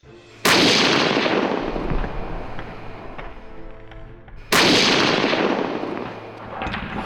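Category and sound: sound effect, gunfire volley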